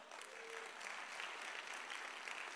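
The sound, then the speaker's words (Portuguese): An audience applauds to the Lord, a dense wash of many hands clapping at an even, sustained loudness with no voices rising above it. “Aplauda ao Senhor.”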